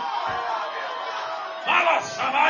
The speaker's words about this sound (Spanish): Pero el que siente la bendición, aunque esté pasando por la tormenta, Levante el mejor grito de adoración al Cristo de la gloria en el día de hoy.